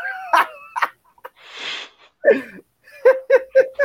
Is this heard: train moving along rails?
no